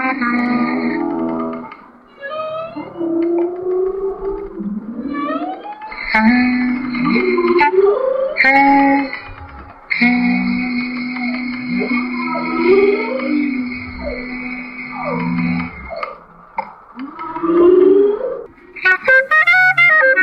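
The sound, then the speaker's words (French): A clarinet, played by David Rottenberg to whales in Hawaii, holds long, steady notes while deep whale calls swoop, moan and echo around it, the two sounds weaving together with no talking. “de David Rottenberg qui joue de la clarinette aux baleines à Hawaï sur France Culture.”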